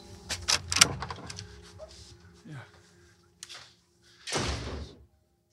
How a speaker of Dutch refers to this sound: We gaan naar binnen. Jij doet de deur open